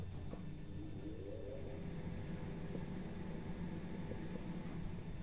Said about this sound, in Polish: wentylator.